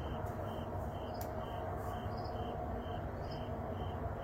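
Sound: crickets chirping outdoors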